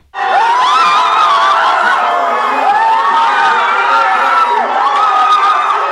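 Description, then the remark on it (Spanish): A dense crowd of football fans roars and shouts celebrating a Brazil goal, many voices rising and falling together, loud, sustained without a break for several seconds. “Uno de los brasileños de barba hippie se sube a una mesa con una botella de cerveza llena y nos grita el gol en la cara.”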